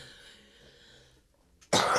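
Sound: sneeze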